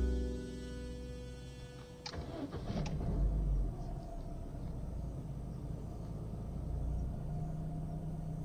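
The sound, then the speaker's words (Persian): A car engine cranks and catches with a sudden rough burst, then settles into a steady, low rumbling idle, with no one talking. “ماشینم رو روشن میکنم زوزه میکشه و میلرزه شکوهی در زوزش نیست”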